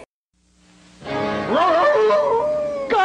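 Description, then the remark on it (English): A single long, wavering howl from Wolf Burger, the Burger Chef werewolf, rises in pitch, then slowly falls and trails off. It is loud, with no talking over it, and a brief faint tone comes first. “It's Wolf Burger, the werewolf.”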